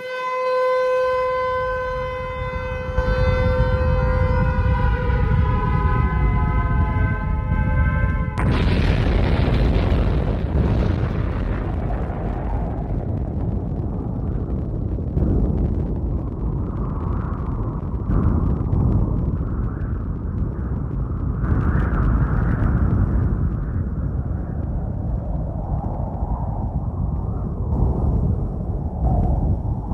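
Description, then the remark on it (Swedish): A wailing siren with sliding tones gives way to a sudden, massive atomic bomb blast, depicting the bombing of Hiroshima on 6 August, followed by a long, loud roaring rumble that continues to the end. No one speaks. “Så 6 augusti så skickas en atombomb mot Hiroshima.”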